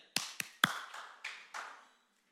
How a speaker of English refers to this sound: Give me a knock. Knock, come on. Clap for me. Yeah.